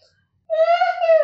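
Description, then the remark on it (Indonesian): A voice imitates a woman's thin, wailing scream heard from a metallurgy lab building at 3 a.m.: after a moment of silence, one high, steady, plaintive cry holds for nearly a second, fairly loud. “gimana gimana sih dia tuh teriak tapi teriaknya teriak lirih gitu terus bener-bener keras banget”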